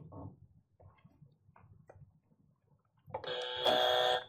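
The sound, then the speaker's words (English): After about three seconds of faint low rumbling and soft clicks, a contestant buzzes in on a true-or-false quiz question: a loud quiz buzzer, a harsh, harmonically rich electronic buzz that swells and holds steady for over a second until the end. “No, you buzzed.”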